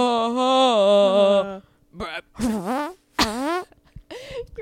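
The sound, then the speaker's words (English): A voice imitates a fart: a long, buzzy, steady raspberry, then several shorter sputtering blats with wobbling pitch, fairly loud, with no talking. “fart sound, I love it.”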